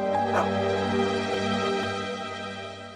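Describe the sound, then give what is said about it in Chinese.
A dog barks a few times at irregular intervals, sharp yelps that rise over a steady, droning hum that continues throughout. “在一些都市传说中有很多版本，比如说把一条狗牵到了一个空荡的房间， 嗯， 它狂吠不止，”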